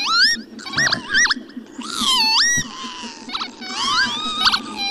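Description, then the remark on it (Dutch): Several nasal, wheezy 'pee-wit' calls of a northern lapwing, loud, with rising and falling slurred notes repeated in quick bursts over a faint background hum. “wie staat er op nummer 1? De kiwiet.”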